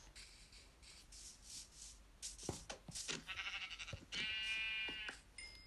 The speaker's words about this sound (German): Hier ist ein Schaf.